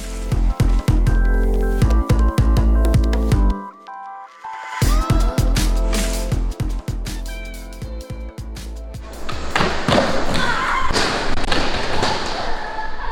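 Skateboarding practice by a 14-year-old girl skater training for the President's Cup competition, practising and falling again and again: a steady rolling rumble punctuated by repeated sharp clacks and heavy thuds of a board landing, a brief lull partway through, then a denser burst of clattering impacts at the end.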